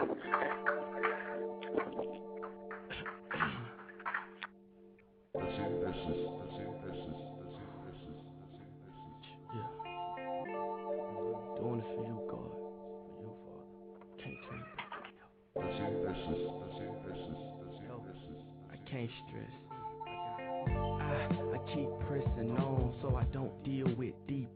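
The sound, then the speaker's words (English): A remixed gospel rap song intro plays loud, with a steady beat and layered melodic samples that briefly drop out and restart in sections, a voice woven into the music. “the next song that you're gonna hear is "…," remixed by …”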